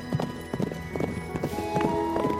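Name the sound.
horse hoofbeats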